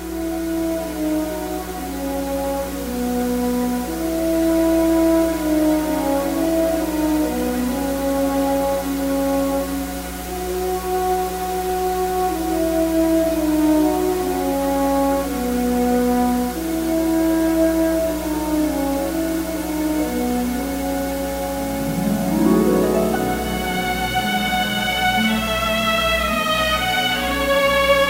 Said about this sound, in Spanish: suite del Pájaro de Fuego, porque realmente es, como te decía, una obra muy grande, pero vamos a escuchar como que lo más eh, representativo